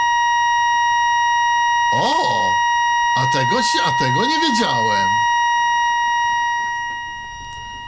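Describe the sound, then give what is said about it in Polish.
A gate sounds a long, unbroken electronic signal, a steady high-pitched buzzing tone that holds throughout, loud and piercing, while someone speaks briefly over it. “bramka emituje dosyć długo ten sygnał.”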